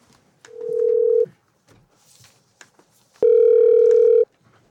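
Two steady, buzzing ringback tones from a phone line, each lasting about a second with a pause between, heard clearly and alone as a call is placed to LG Twins pitcher Park Myung-geun.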